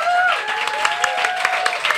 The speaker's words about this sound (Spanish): Recibimos, y ya lo habéis escuchado, a uno de los creadores y directores de esa maravillosa revista satírica absolutamente necesaria en nuestra sociedad que es Mongolia. Recibimos con el mejor de los aplausos a Edu Galán.